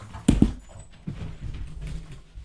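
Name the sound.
dogs fighting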